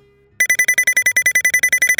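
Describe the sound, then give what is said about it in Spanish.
An alarm clock rings loudly for the fifth time, a rapid, steady train of bright metallic bursts, about eight per second, starting abruptly after a brief quiet moment with no talking, while someone lies in bed before a workday. “otra vez este despertador. Es la quinta vez que suena.”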